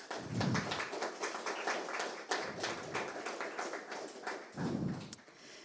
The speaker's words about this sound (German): Ich darf Sie ganz herzlich im Namen der Stadtbibliothek begrüßen. Freue mich, äh, dass Sie dabei sind und dass wir heute Abend das Universum von Nikolaus Mahler entdecken dürfen. Herzlich willkommen, Nikolaus Mahler. Applaus